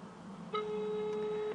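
A single steady telephone ringback tone from a call placed to a former deputy of the People's Assembly and deputy head of Khasavyurt, Dagestan, sounds for about a second against a faint background hiss, then stops. It's a clear, even electronic hum, with no voices.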